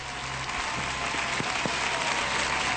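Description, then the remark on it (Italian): Steady audience applause in Italy fills the whole stretch, a dense wash of many hands clapping at even loudness, with no voices standing out above it. “Mai applauso fu, fu più telefonato di questo, credo.”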